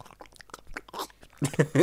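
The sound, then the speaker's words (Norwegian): A voice imitates the sound of an injured man lying with a split jaw, bleeding and breathing: a wet, gurgling throat sound, bubbling and sputtering in a rapid series of moist clicks and slurps that grow louder and thicker toward the end. “Du kan se liksom eh, skje- Skjevene på en måte splitta, så du klarer å se liksom t- tunga som går ned i halsen, og ligger der og blør og puster og lager sånn”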